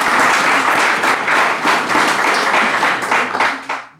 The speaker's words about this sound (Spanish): Oigan, aplauso, por favor, para Mirabel.